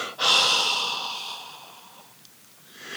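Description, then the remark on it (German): A person imitates a long, forceful exhale: a single breathy rush of air that starts abruptly and slowly fades over about two seconds, with no talking. “Und du hörst den, den Laut des Ausatmens, so.”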